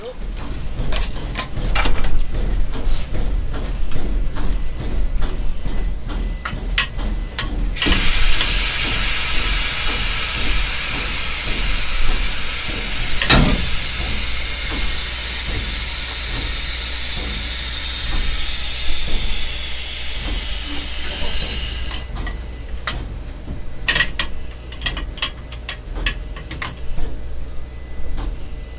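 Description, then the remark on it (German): A loud, broad hiss of steam bursts from a steam locomotive during a brake test and holds steady for about fourteen seconds before fading, with clanking and metallic rattles around it and a low engine rumble underneath throughout. “Machen wir gleich Bremsprobe, ja?”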